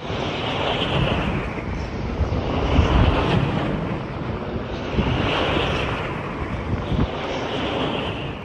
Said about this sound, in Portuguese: este é o som de uma turbina eólica, uh, pelo menos depreendo que será isso que acabámos de ouvir. As turbinas fazem todas eh, este som ou, ou há diferentes sons para, consoante as turbinas?